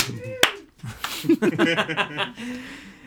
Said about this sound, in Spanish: Tú sabes, me encanta cuando la gente dice un aplauso y alguien nada más da uno, verdad.